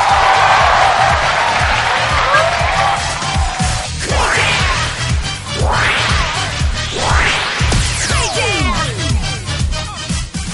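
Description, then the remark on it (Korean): A loud, continuous wash of audience applause and cheering welcoming singer Insooni as a guest on a show, with several rising whistles sweeping upward midway and a steady rhythmic beat pulsing underneath. “이렇게 박수와 환호를 막 받을 때 어떤 생각이 드십니까?”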